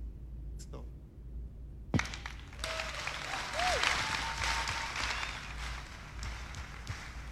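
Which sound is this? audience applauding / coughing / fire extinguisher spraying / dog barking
audience applauding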